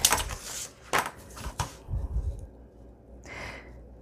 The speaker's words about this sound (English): Then I'm just gonna, well, I'll just do it while I'm here. I'll just cut this off. I won't go to my guillotine.